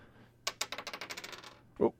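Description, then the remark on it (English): Dice are rolled across a hard surface to pick a prompt, clattering in a quick run of sharp, bright clicks that tumble closer together and fade out, with a brief voice sounding just afterward. “the dice as I get to give a prompt.”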